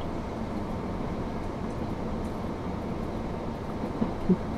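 A steady, continuous rumble of a train running along the rails of the Nemuro Main Line and Sekisho Line between Obihiro, Shintoku and Minami-Chitose in Hokkaido, Japan, moderately loud and even throughout, with a couple of brief knocks near the end and no voices.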